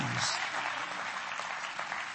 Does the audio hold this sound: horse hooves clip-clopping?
no